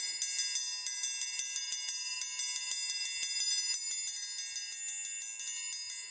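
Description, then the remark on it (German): A triangle struck in a steady, even quarter-note pulse, each bright metallic hit half damped so the high shimmering ring stays short and the rhythm remains clear. No voices are heard. “Wie Sie hören hier, das ist halb gedämpft damit den Rhythmus versteht.”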